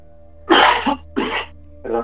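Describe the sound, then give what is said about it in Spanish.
A person coughs hard three times in quick succession, loud, with the first cough the longest, and short pauses between the bursts. No one speaks. “Espera, que me han entrado tos.”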